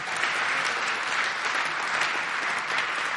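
Sustained audience applause, a dense steady patter of many hands clapping at an even loudness for the whole stretch, with no voices standing out above it.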